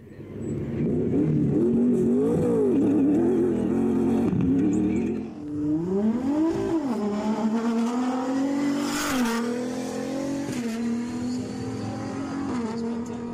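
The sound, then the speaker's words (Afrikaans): The twin-turbo V6 of the Gazoo Racing Hilux T1+ 2022 Dakar race car in Parys, an engine normally found in the J300 Land Cruiser making just under 300 kW and 660 Nm, revs loudly and continuously, its pitch swelling and falling through repeated throttle blips, briefly dropping before climbing again with a harsh burst. “Die gebrul van die V8 maak nou plek vir die geskreeu van 'n dubbelturbo aangejaagde V6 wat normaalweg gevind word in die J300 Land Cruiser.”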